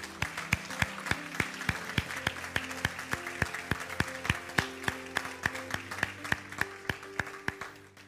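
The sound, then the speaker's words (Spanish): A church audience applauds for Christ steadily for about eight seconds, dense overlapping claps with sharper individual smacks, while sustained low musical chords hold underneath. The applause tapers slightly at the end. “Un aplauso a Cristo.”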